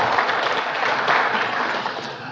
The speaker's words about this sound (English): And so, why don't you give yourselves a round of applause and thank yourselves because it's, it's awesome.